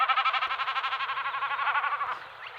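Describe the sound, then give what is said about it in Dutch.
A common snipe drumming with its tail feathers: a rapid, pulsing, bleating tremolo that lasts about two seconds at steady strength, then fades away. No voices. “een watersnip, dat is toch niet zo'n herkenbaar geluid natuurlijk als die koekoek?”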